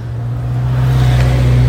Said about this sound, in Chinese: 刚才这是塔塔加要上玉山的接驳车。